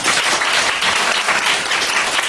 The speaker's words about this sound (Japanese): ちょっと待って拍手しないで拍手